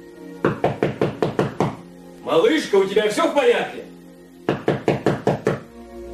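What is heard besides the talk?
knocking on a door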